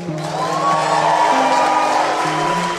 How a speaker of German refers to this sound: So viel Applaus und Jubel gab es für Brasiliens designierten Präsidenten Lula da Silva